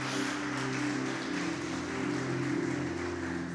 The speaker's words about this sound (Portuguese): Porque Deus não está colocando limites naquilo que você tem para viver. Pode aplaudir Jesus bem alto, gente.